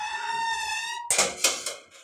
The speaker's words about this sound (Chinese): 金属门，Metal door。 金属门发出了。奇怪奇怪的声音